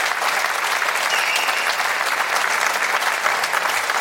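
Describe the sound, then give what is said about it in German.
Steady, dense applause from an audience, many hands clapping at once in a continuous crackling wash that holds at an even, fairly loud level throughout. “Dankeschön. Applaus”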